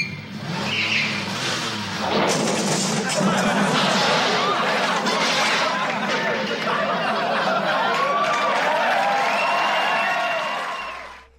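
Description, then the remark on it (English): A studio audience in a sitcom clip reacts throughout as the character Al walks over to the door, a dense, sustained wash of crowd noise and murmuring that stays loud for about eleven seconds before cutting off, with voices mixed in. “So uh, it's so funny that this moment is so, and then you can hear the audience as Al's walking over to the door uh, he goes, it, "It's okay.”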